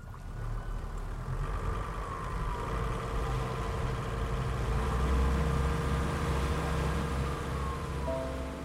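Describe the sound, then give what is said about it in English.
A boat engine idles on a lake as the boat slows, with a steady, throaty low rumble that holds evenly throughout, fairly loud, with faint wavering tones drifting above it and no one speaking. “I slowed the boat and looked back at the docks.”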